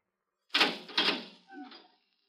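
A door opens: two quick rattling clunks of the latch and handle, then a short, rising creak of the hinges as it swings, with no voices.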